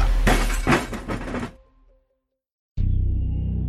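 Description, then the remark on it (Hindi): A loud crash of an antique candlestick telephone slipping from someone's hands and falling, shattering with a cluster of sharp breaking impacts that trail off into silence, followed by a steady low hum. “उसका खरीदा हुआ बारह सौ रुपए का वो एंटीक कैंडल स्टिक फोन उसके हाथों से फिसल के”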